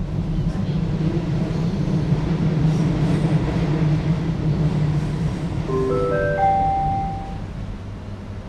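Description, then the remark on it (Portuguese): A commuter train on the line to Cascais, Portugal, rumbles steadily with a deep, continuous low drone, then near the end rising tonal whines sound as it slows and pulls into the station. “Já estamos a chegar à parede. Ai, estou. O comboio hoje está cheio de paredes.”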